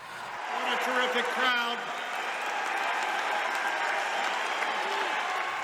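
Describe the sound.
A large crowd at the 1992 US party national convention applauds Buchanan's speech steadily, a dense wash of clapping that holds for several seconds, with a few voices briefly audible near the start.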